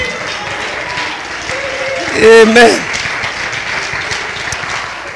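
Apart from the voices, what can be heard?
audience clapping hands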